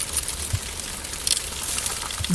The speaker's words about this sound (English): This is what a gazillion mealworms sound like when munching on polystyrene. I know, it's awesome. Let's hear it again because I can't get enough of something I've never heard before.